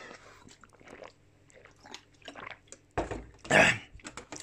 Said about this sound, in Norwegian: Jeg skal drikke litt vann.